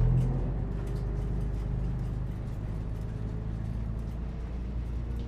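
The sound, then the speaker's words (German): A steady low engine rumble from inside a moving bus carrying women and children to Baku, constant and fairly loud, with faint road noise and no clear talking. “Nach einer gefühlten Ewigkeit sitzen alle im Bus.”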